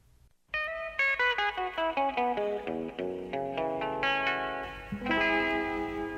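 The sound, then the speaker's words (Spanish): A rock and roll song plays, opening with a quick run of bright, ringing notes in a steady rhythm, then settling into sustained, effects-heavy chords. No one speaks. “Vamos a escuchar la música de oro, la música de el rock and roll.”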